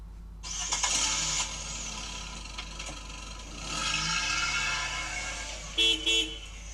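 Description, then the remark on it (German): A car engine starts and revs with mechanical rattling and whirring, then two short horn toots near the end. No one speaks. “Es ist das Auto, genau, das Auto, Auto, der PKW oder Auto.”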